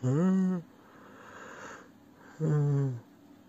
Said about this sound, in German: Gut, ich bin wirklich raus, ich bin irgendwie total down und ich fange schon wieder an zu gähnen, was ich mir aber jetzt unterdrücke.